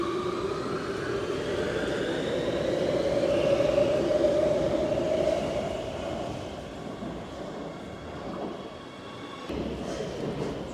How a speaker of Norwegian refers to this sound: nå er jeg på T-banen i Oslo for å finne riktig linje, linje 5, opp til Groruddalen